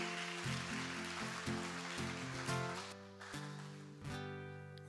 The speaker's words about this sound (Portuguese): Glória a Deus. Pode aplaudir ao Senhor também. Se for para ele, pode aplaudir.